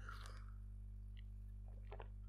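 Someone takes a quick sip of a caramel latte: a few short, wet mouth and swallowing sounds, quiet, over a steady low hum with no talking.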